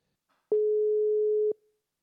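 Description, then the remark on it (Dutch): A single steady telephone ringing tone sounds for about a second, clear and fairly loud, as a call is placed, with soft clicks at its start and end and silence around it. “Ehm, zullen we beginnen met het bellen van”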